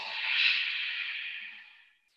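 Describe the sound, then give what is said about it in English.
A long, steady exhale through the nose during a yoga exercise in a goddess squat with eagle arms, soft, swelling briefly then tapering off over about two seconds, with no talking. “Breathing out.”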